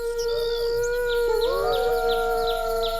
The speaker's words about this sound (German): Es ist dieses Heulen, das unsere Freunde von der Insel vertreibt. Das ist ein Wolf.